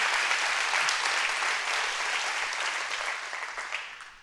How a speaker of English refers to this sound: Come on, clap your hands. Let's use it. Let's use it. Let's use it.